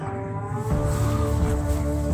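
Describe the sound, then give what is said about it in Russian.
A car engine hums steadily, its low rumble swelling louder partway through as the car drives away. No voices are heard. “Уезжает машина.”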